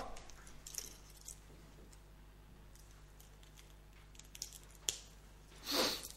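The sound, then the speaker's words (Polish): Sharp clicks and light handling noises from a GoPro camera being powered on by a cable from a drone's battery pack, with a brief, slightly brighter burst near the end; no one speaks. “E, już nam kliknęła i spróbuję teraz zacząć Wyświetlacz e, jest już aktywny”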